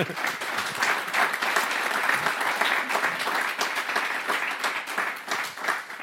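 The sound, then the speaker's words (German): Sustained applause from an audience fills the room, a steady dense wash of many hands clapping at once, loud and continuous for several seconds with no voices standing out. “Ihr Applaus. Applaus.”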